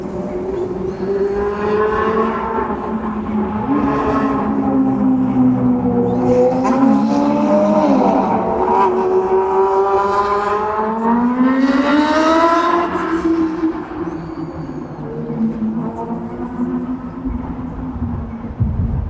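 Steady, loud traffic at the busy Nagoya Station intersection in Nagoya, Japan: engines hum and rev with rising and falling tones as vehicles pull away and pass, blending into a continuous rumble. No one speaks.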